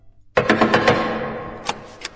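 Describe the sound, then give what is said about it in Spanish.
A quick burst of about five sharp knocks on the heavy door of room 16 in pavilion B, then two more spaced-out raps, each a hard percussive thud with a ringing tail; no voices. “Entonces los golpes en la pesada puerta del cuarto 16 del pabellón B la sacaron de golpe de su ensimismamiento.”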